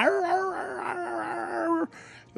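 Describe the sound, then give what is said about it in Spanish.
A dog howls in one long, steady, drawn-out note that holds for nearly two seconds, fairly loud, then breaks off into a brief, faint, breathy tail; a ranch dog in Mexico howling before an eclipse. “Antes de que sucediera el eclipse, los perros del rancho empezaban a aullar.”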